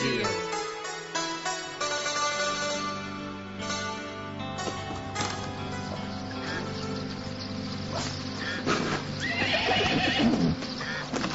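A horse whinnies loudly and repeatedly while hooves clip-clop in a steady rhythm underneath, with some low background noise throughout. The horse is outside with a man on it.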